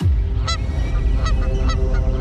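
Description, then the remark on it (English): A flock of geese honking, with several loud, nasal honks overlapping at irregular intervals over a steady low rumble of background noise. “When a flock of geese knocked out two engines on U.S. Airways Flight 1549 right after takeoff from LaGuardia Airport, who would you want in the cockpit?”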